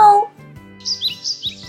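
A small pet bird at a kindergarten chirps a greeting, a quick run of several bright, high tweets in the second half, over a soft low hum, after a brief tonal sound at the very start.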